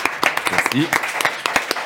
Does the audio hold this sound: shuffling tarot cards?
no